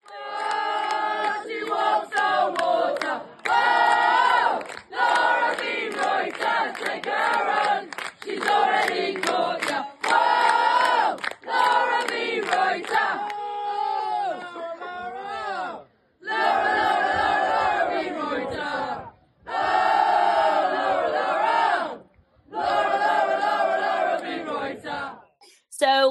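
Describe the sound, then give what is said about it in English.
A football crowd sings the chant "She walks on water" in loud unison, many voices carrying a rising and falling melody, first in quick rhythmic bursts, then in longer repeated phrases separated by brief pauses. “So we're going to insert now uh, the winning chant, which yes. was "She walks on water."”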